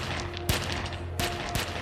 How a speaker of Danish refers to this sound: Med et fyres en byge af skud fra to 9mm pistoler af mod den store mand og rammer os folk omkring ham. Magasinerne tømmes, før gerningsmændene stikker af.